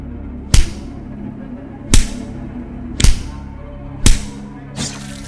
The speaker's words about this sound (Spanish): Cada acusación, cada revelación, se traduce en una lluvia de golpes que resuena como un eco de venganza.